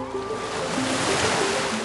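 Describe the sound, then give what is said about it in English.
Ocean waves wash in a steady, continuous rush of surf, fairly loud, with a faint sustained tonal hum beneath and no voices. “You see, 400 million years ago, this whole area was under a giant saltwater ocean.”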